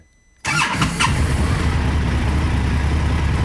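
An Indian FTR motorcycle engine cranks with a brief whir, catches, and settles into a steady, deep rumbling idle with a slight rev at the start.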